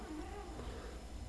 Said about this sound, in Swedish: Så ni kanske hör en katt i bakgrunden vid några tillfällen, men då vet ni vad det är för någonting i alla fall.